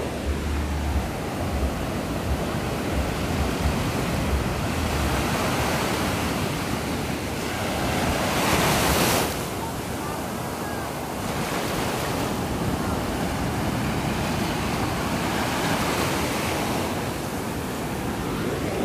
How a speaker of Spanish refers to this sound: Entonces, pues sí, escuchen las olas un ratito.